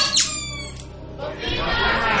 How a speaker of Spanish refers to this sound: Ahora ha sido bocina. Vale, está claro.